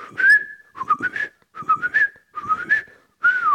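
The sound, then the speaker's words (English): A person whistles a series of short, sliding tonal phrases in bursts separated by brief pauses, as a communication signal, fairly loud with no talking. “you could communicate with people whistling”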